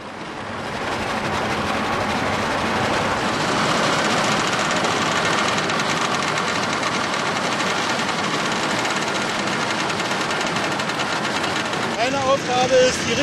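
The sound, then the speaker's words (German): A road paver laying asphalt at a road construction site: its engine drones steadily with a broad, loud mechanical rumble and clatter, continuous for the whole stretch, with a few brief higher tones near the end. “So heißt die Maschine, die den Asphalt aufträgt.”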